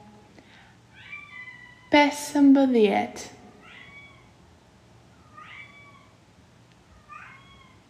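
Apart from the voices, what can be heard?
cat meowing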